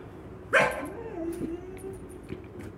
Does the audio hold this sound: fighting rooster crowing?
no